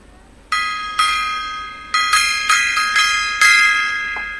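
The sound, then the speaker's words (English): A small gong is struck about nine times in an uneven rhythm, each hit ringing bright and metallic and overlapping the next, fairly loud with no one talking. “Bang the gong, get it on.”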